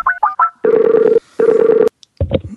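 Three quick telephone keypad beeps, then two long, steady ringing tones as the call connects, ending with a brief muffled sound like the line being answered.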